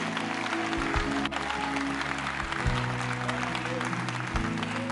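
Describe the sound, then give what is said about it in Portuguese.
An audience at a church service applauds the Lord steadily, a dense wash of many hands clapping at once, loud and sustained throughout, with low sustained tones from instruments or organ underneath. “Então aplauda ao Senhor, dá um glória a Deus.”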